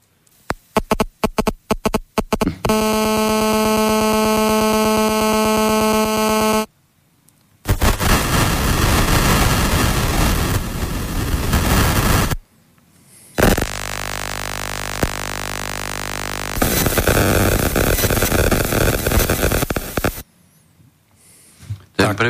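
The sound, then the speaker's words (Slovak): Loud, harsh 3G and then 4G mobile signal modulation noise, the modulation rather than the carrier wave, in distinct blocks: rapid clicks, a droning harmonic buzz, then dense hissing static and another roaring buzz, separated by short silences, with no voices. “Potom bude nasledovať teda zvuk e, 3G, modulačne a potom 4G.”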